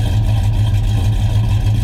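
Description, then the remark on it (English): A loud, deep big block V8 engine rumbles steadily, its heavy low-end exhaust note pulsing with a slight lope and no voices over it. “It's like, like an old Borla exhaust or something on there.”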